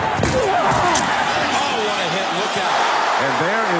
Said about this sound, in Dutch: Als je hoort of ziet hoe een tackle in American football kan, daar komen G-krachten vrij die je ook soms bij een autobotsing ziet, is wel eens berekend. En dat gaat er keihard aan toe.